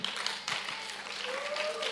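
A crowd claps together in a dense, steady patter of many hands, fairly loud and continuous for the whole stretch, with a faint tone or voice lingering underneath.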